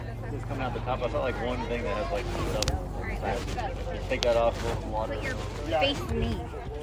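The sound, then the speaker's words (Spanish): A tractor engine, with children riding in it, hums and rumbles steadily at low pitch throughout, sitting beneath people talking, with the voices louder than the engine. “Voy a ver si me junto al tractor el día de hoy para experimentar pues lo que los chicos están experimentando.”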